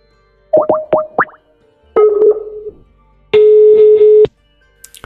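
Telephone line tones on an outgoing call from a radio show's phone: three quick electronic blips, then a buzzy tone and a longer steady dial-type tone, clear, with no one speaking.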